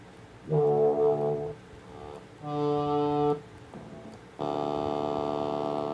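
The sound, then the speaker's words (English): A buzzy synthesizer tone full of bright harmonics plays three sustained notes, each held about a second with brief pauses between, the last one louder and richer than the first two. “So I picked that one because it has a lot of harmonic content in it, which means we'll be able to hear if I change the filter cutoff frequency of this with a, with a low pass filter.”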